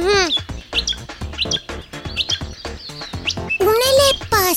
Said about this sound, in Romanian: Nu, Biții, nu, n-am devenit visător, dar am descoperit în baza mea de date foarte multe glasuri de păsări cântătoare și le ascultam.